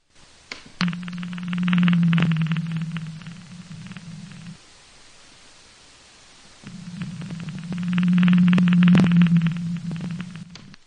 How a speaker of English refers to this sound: here's an example of what a blue whale sounds like.